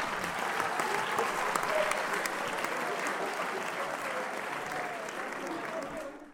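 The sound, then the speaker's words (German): A burst of crowd applause from a soundboard effect, steady dense clapping for several seconds at moderate loudness, then fading out at the end. “Man muss die Lacher und den Applaus auskosten.”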